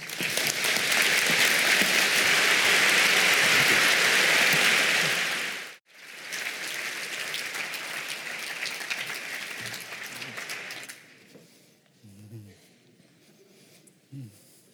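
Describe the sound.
Loud, dense audience applause in a large hall welcomes a speaker; it swells and holds steady, breaks off abruptly, then resumes for several seconds before fading out, with a few faint voices emerging at the end.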